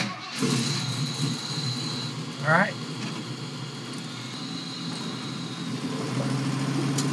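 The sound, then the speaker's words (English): An early Bronco's engine starts and rumbles at a steady idle throughout, a low throaty drone, while a man briefly speaks over it partway through. “All right, well, let's drive.”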